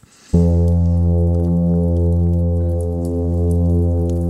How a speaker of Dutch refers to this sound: Het klinkt een beetje als een synthesizer uit de jaren 80, maar dat is zo'n zwemblaas.